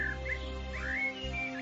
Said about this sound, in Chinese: 林梢的鸟语省略复杂的人话，小鸟不善泉，它们只自由的飞呀。